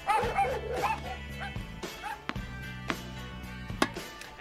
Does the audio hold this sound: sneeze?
no